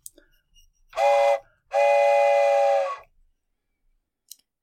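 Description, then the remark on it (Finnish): A steam train whistle sounds two loud blasts, a short toot followed by a longer sustained one, with only faint clicks before and after. “joten tervetuloa junaan!”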